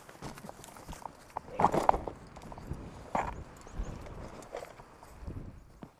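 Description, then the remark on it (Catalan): Hooves clop irregularly on hard ground as Gafí, a man's new horse, shifts and steps while he handles it in Menorca, with a few sharper knocks around the middle and faint background noise throughout. “que mostra Gafí, el seu nou cavall.”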